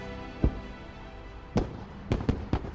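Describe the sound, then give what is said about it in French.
Five sharp firework mortar shots boom over a steady background rumble, one early, a pause, then a burst of four quick bangs near the end, no voices. “Il y a des tirs de mortier et tout, et il passe un peu dans le centre.”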